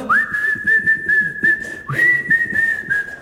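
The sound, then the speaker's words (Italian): Someone whistles a tune, two long, clear notes that each swoop up at the start, over a faint low background rumble. “No, no, addirittura, eh, cioè, proprio mm, fischiandolo, fischiandolo.”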